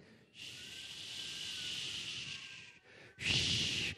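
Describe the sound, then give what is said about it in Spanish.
Voices imitate the ocean whoosh of a conch shell from Veracruz with a long, steady breathy shushing hiss, then after a brief pause a shorter, louder rush of the same airy sound. “Se puso a escuchar el sonido del mar en el caracol que le había traído su tía Lupita desde Veracruz”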